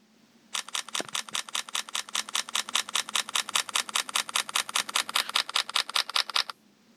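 A phone camera shutter fires in a rapid continuous burst as the shutter button is held down in continuous mode, dozens of crisp, evenly spaced clicks for about six seconds, clear with no talking, then stops abruptly.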